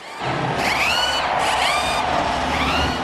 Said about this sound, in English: Drivers, start your engines!